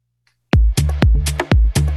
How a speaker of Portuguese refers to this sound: Bom, essa aqui é a música que, que, que é, passou lá no VA do, do volume e vê se tá bom aí.